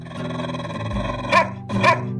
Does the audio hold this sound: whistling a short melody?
no